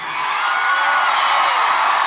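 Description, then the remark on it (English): A dense, steady wash of audience applause mixed with some cheering, loud and continuous for about two seconds, with no speech over it. “You hear that applause?”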